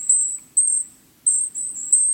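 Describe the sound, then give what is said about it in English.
High, thin whistles of a golden-crowned kinglet, one of the smallest songbirds, about three and a half inches long, come in several short, fairly loud bursts separated by brief pauses, with no one speaking. “You're hearing the high whistles of a golden crowned kinglet, one of our smallest songbirds.”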